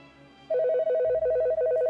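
A telephone rings with an incoming call from an aunt, a loud electronic warble of two alternating mid-pitched tones trilling rapidly in four short bursts with brief gaps, with no voices over it.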